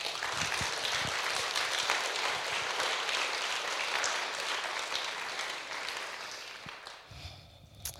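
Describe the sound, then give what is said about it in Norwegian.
An audience applauds the Holy Spirit, a dense, sustained wash of many hands clapping at steady loudness that thins out near the end. No one speaks over it. “Gi Den hellige ånd en applaus, altså.”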